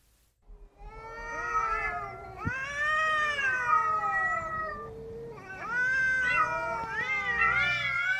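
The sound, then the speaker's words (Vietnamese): Stray cats in a vacant lot used as a neighbourhood rubbish dump yowl loudly during mating season in long, wavering, drawn-out wails that rise and fall, overlapping almost continuously for several seconds. No one speaks. “Đến mùa động đực, chúng rên rỉ thứ âm thanh kỳ lạ.”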